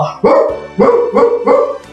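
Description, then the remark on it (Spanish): A dog barks four times in a quick, uneven run of loud, mid-pitched woofs, with no talking over them. “El perro que andaba por allí se acercó al caballo y al gallo y dijo, no, no, no, no, la ratona va a ser mi esposa.”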